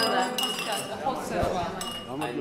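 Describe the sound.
Wine glasses clink together several times in a toast at a winery with qvevri amphorae, their bright ringing tones lingering while voices murmur in the background.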